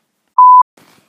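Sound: beep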